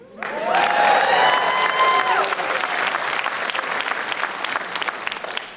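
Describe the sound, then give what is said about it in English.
A crowd bursts into sustained applause with cheers and a shrill whistle near the start, the clapping staying loud and dense for several seconds before easing slightly toward the end. “But next week, I'll be a Chiefs fan and the crowd went mild.”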